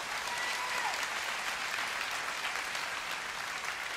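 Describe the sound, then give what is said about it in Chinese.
A church audience claps together to give glory to God, sustained, dense applause, a steady wash of many hands with no single claps standing out, holding at an even level throughout. “愿意的拍手把荣耀归给他。”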